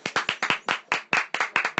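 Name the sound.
applause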